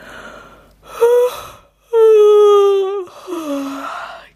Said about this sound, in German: gähnt.